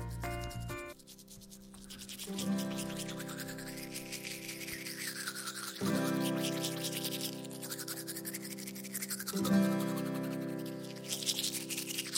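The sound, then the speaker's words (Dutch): Steady, scratchy back-and-forth scrubbing of a toothbrush brushing teeth, repeating in long strokes over a sustained tonal music bed, fairly loud, with no talking. “Ja, we gaan tanden poetsen met een tandenborstel in onze mond.”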